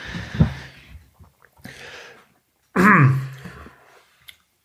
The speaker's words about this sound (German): Gesundheit. Danke.